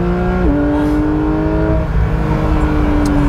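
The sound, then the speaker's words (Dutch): A 510-horsepower sports car engine drones loudly with a steady, buzzing harmonic tone, its pitch stepping up once early on, then holding a strong, even revving note with no one speaking. “En vooral misschien ook wel buiten, maar het is echt alsof je met een racer bezig bent. Een 911 Cup auto.”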